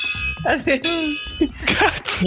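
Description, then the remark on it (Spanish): A bell-like ring from a USB cable clinking against a water bottle, its bright tone lingering and fading while someone talks loudly. “Lo que sonó fue mi literal van a ver lo que sonó como campana. Fue mi este al agua con un, cable de USB chocando entre ellos.”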